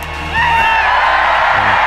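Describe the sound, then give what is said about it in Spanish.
A large crowd at a celebration concert in Windsor roars and whoops continuously in applause for William, a dense wash of cheering with a few higher shouts rising above it, loud and sustained throughout with no clear speech. “El hermano William, sin embargo, fue muy aplaudido anoche en el concierto de celebración.”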